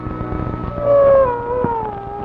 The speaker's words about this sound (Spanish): Por lo visto los coyotes quieren cantar al son de mi acordeón. No, los detesto a los malditos. Más parece eso la voz de la muerte.